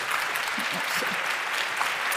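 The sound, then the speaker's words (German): A steady burst of audience applause, many hands clapping densely and evenly throughout, with faint murmurs of voices underneath. “Genau, Applaus, ja, Applaus.”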